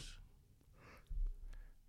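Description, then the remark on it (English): A soft, stifled yawn from a tired person trying to keep it quiet: a few airy, breathy inhales and exhales, muffled, with no talking. “Nice yawn.”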